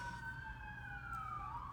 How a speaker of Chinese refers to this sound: 然后外边这警车声太吵了，这特别是美国的一个特色。